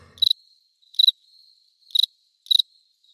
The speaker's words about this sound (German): Also, absolutes Grillenzirpen.